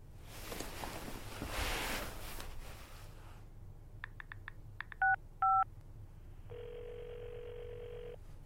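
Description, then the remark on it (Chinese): A string of quick phone keypad beeps, then a steady ringback tone humming for nearly two seconds as the call rings unanswered, after a stretch of soft rustling noise. No one talks. “怪了，怎么没人接呢？”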